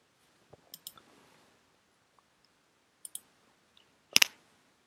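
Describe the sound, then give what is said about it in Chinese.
Computer keyboard keys click in short, irregular bursts while typing in an IDE, using the Tab key for code completion: a quick cluster of three, a pair a couple of seconds later, then one final sharper, louder tap. The clicks are crisp and there is no talking. “和所有的 IDE 一样，在用键盘操作的时候呢，可以用 Tab 键来进行补全，这样可以看到相关的函数的信息。”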